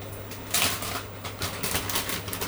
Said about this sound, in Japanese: 炒めてるいいぞああ焦げてきたなんだこれちょっと適当ななんかアルミの鍋とかで作ってるから焦げるなこれフライパンであればよかった